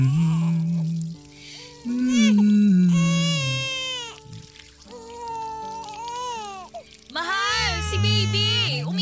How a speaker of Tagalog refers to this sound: Sabi ko, si baby umiiyak.